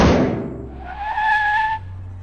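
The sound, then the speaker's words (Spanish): A loud crash bursts out first as a truck hits two young girls walking on their way, then tires screech in a sustained, high-pitched skid for about a second before cutting off into a low engine rumble. “A sus espaldas, el ruido de un fuerte golpe, seguido de un frenazo”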